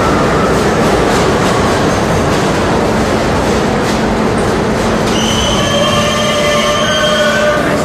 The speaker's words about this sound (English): This is a Queens-bound E train via the F line. The next stop is 42nd Street, Bryant Park.